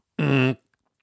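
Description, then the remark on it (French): A single short, loud buzzer blast with a harsh, flat, raspy tone, lasting about a third of a second before cutting off abruptly, with nothing else around it. “Ça, c'est le bruit du buzzer.”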